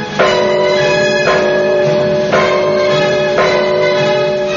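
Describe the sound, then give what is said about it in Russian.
A town alarm bell clangs loudly and steadily, struck four times about once a second, each heavy stroke ringing on and overlapping the next, rung by a guard at night to warn of rats approaching the city. No voices are heard. “— воскликнул стражник и кинулся к набатному колоколу.”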